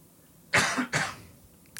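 A man coughs twice in quick succession, two harsh, fairly loud bursts close to the microphone, with quiet room tone before and after.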